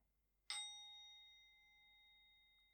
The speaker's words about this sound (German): Ich lasse die Klangschale ein paar Mal klingen. Versuche dem Ton zu lauschen.